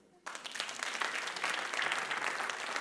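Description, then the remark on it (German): An audience breaks into applause for God being let in, after a brief quiet moment, a dense, steady wash of many hands clapping that holds at a fairly even, moderately loud level to the end. “Gott. Ah, kriegt einen Applaus.”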